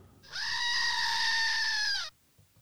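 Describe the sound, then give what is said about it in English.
A goat lets out one long, loud, piercing scream that holds steady for nearly two seconds before dropping slightly in pitch and cutting off, with no voices around it. “like a screaming goat.”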